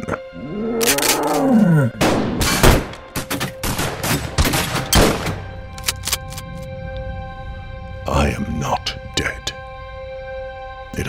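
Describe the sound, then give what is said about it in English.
A deep, growling big-cat roar rises and falls, then a squad opens fire in a loud volley of rapid cracks, followed by a few scattered later shots and lingering echoes. “A lion in a cop's uniform, straight out of Leonidas, stands with a squad of his cronies who open fire on me once again.”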